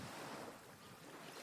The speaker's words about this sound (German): Stell dir vor, es ist Nacht am Strand. Und alles, was du hören kannst, ist das Geräusch der Wellen.